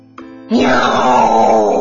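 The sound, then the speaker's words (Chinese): A voice imitates a fat cat's frightening yowl, a "meow" cried with all its strength: one loud, drawn-out, wailing cry that starts abruptly after a faint lead-in and holds steady and strained to the end. “喵！ 大肥猫憋足了劲儿，用最最可怕的声音叫了起来。”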